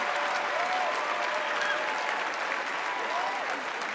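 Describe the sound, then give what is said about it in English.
Loud, sustained applause and a standing ovation from a large crowd at the Tony Awards for Robert De Niro's remark about Trump, a dense steady roar of clapping with scattered cheers and whoops rising above it throughout. “Oh, another raucous applause.”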